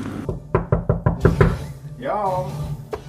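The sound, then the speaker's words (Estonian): A quick series of about six sharp knocks on the wooden door of musician Tiit Kikas's studio, fairly loud, followed by a voice calling out briefly. “ma olengi praegu Tiit Kikase stuudio ukse taga, et küsida, mis sel õhtul saab sündima. vaatame, kas avatakse.”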